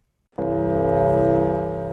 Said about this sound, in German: Der Gong als Konstante. Mit ihm geht es heute um 11 Uhr jedenfalls pünktlich los, wie immer.